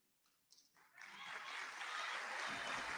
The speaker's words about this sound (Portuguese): E mais palmas, né? É foi um discurso cheio de palmas.